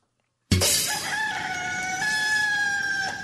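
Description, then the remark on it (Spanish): A rooster crows loudly in one long, drawn-out cock-a-doodle-doo that starts abruptly after a brief silence, its strained, nasal call holding steady pitch before rising slightly at the end. “¡Arriba, gallinero!”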